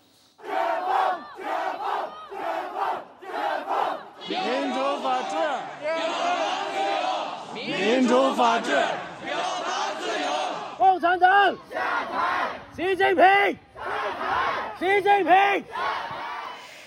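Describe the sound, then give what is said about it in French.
A large crowd of protesters in China, demonstrating against the zero-Covid policy, chants slogans in loud, rhythmic bursts, voices rising together in repeated short phrases with brief gaps between them, sustained throughout. “L'actualité du jour, c'est les manifestations en Chine d'ampleur historique depuis celle de la place Tiananmen en 1989.”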